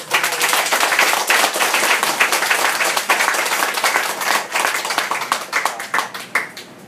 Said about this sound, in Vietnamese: hãy dành một tràng pháo tay thật lớn để cảm ơn cô.